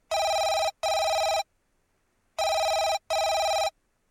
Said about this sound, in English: your host is busy at the kitchen. He tells you, Please pick up the phone for me. And you oblige, picking up the phone and ask, Hello?